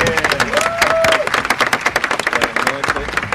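A crowd applauds a band as it is introduced, with dense, steady clapping, punctuated by a few high whistles and cheers rising over the noise throughout.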